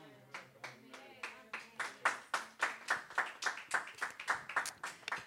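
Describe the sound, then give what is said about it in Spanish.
An audience claps together in a steady, rhythmic beat, about a dozen sharp, bright claps rising in loudness, with faint voices and a low sustained tone beneath. “Para Él es esa sabiduría, ese aplauso.”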